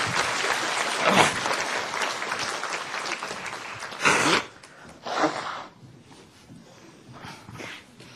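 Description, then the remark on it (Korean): An audience at a church service claps steadily and loudly for about four seconds, then the applause thins into a few scattered bursts of clapping before fading out. “다시 한번 박수로 격려하시겠습니다.”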